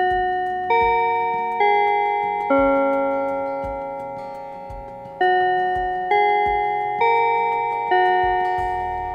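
A school bell chime rings out a slow melody of clear, resonant tones, each struck note ringing and fading before the next, about eight strikes with no voices.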